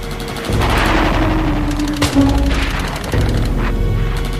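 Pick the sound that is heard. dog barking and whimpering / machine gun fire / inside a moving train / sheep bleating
machine gun fire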